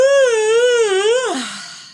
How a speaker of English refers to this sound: that yawn felt really good.